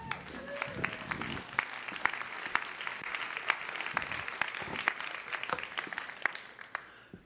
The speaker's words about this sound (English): A little clapping and cheering. Woo!